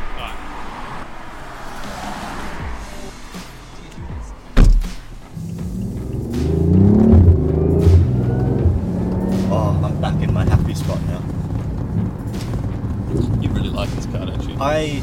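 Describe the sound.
A car door thunks shut, then a BMW i8 Roadster hybrid sports car pulls away, its engine note rising and sweeping upward as it accelerates, with muffled voices and wind noise in the background.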